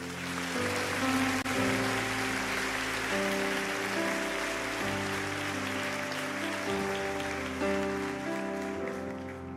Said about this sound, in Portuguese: Bata uma salva de palmas para Jesus.